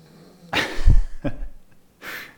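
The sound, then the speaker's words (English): A King Charles Spaniel dog snoring: three snuffly, breathy rasps about three-quarters of a second apart, with a low rumbling snort in the first, and no talking. “King Charles Spaniel snoring.”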